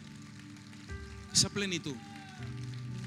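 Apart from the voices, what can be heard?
audience applause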